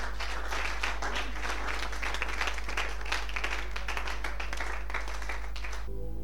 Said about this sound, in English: Clap your hands.